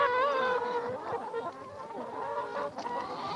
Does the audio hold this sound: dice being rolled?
no